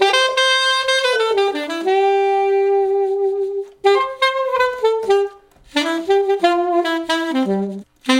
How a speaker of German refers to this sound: So, das war ein Ausschnitt aus dem ersten Casting der …. Ja, ich würde sagen, äh, die Fankurve fürs Saxophon steht, gell? Ein bisschen Saxophon kann ja nicht schaden.